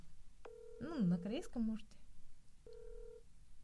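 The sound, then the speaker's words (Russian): A phone's ringback tone purrs in two steady, even beeps about two seconds apart, heard through a handset during an outgoing call that goes unanswered. People speak briefly over the first beep, and the second plays alone. “Что это он так долго не берет?”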